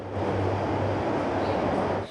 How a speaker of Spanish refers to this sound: La luz al final del túnel llegó después de un año y ocho meses. Y este domingo regresaron a rodar los trenes de la línea 12.